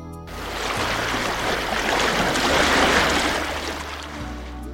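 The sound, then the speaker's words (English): A big boat moving through water: a steady rush of churning water over a low rumble, swelling gently toward the middle and easing off again, with no voices. “I see a big boat.”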